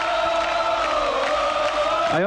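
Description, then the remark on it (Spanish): A concert crowd, heard on a cassette recording, fills the gap between songs with a steady, dense roar of voices, some sustained chant-like shouting rising over it, and a quick rising whoop right at the end. “entre canción y canción. lo que dice la gente al lado tuyo ahí.”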